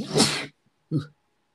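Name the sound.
sneeze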